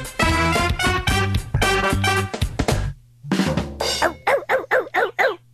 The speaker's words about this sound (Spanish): Mira cómo ladra, el ¿Eh? Pero mira cómo, ladra? este cachorrito.